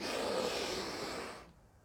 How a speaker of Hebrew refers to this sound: ובואו נצא עכשיו וננשום ביחד נשימה עמוקה וטובה.